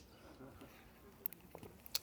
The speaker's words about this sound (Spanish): Yo ahorita me estoy muriendo de sed, perdónenme, le voy a dar un trago de tanto hablar de agua.